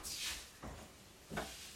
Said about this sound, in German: Moment, ich mache kurz meine Tür zu.